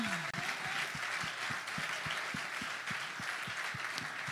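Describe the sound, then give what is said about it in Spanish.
An audience applauds for the Lord in a steady wash of clapping, with a rhythmic low thump beating roughly every quarter second underneath, like unison clapping or a drum keeping time. “Si usted le va a dar el aplauso al Señor.”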